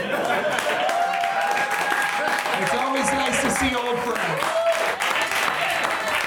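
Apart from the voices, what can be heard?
audience applause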